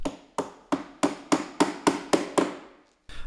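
Hammering in a beach-chair (Strandkorb) workshop in Schleswig-Holstein, Germany, on the Baltic coast, where beach chairs are readied for the new season: about nine sharp, loud blows land in a steady rhythm, each ringing briefly before the next. A short pause follows, then one more strike. No voices.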